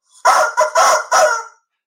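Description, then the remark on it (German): A rooster crows loudly at 7:10 on a Tuesday morning, a single cock-a-doodle-doo in four bright, harsh bursts lasting over a second, followed by silence. “der Hahn kräht um 7.10 Uhr am Dienstagmorgen”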